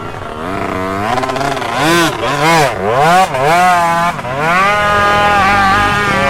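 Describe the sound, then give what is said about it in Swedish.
An enduro motorcycle revs hard through a peat bog, its engine pitch swooping up and down in repeated bursts as the throttle is worked, loud throughout. “En del kör ju liksom full ladd genom på varvtalsstoppet hela vägen medan andra lugnt och metodiskt äter sig i, fram genom myren.”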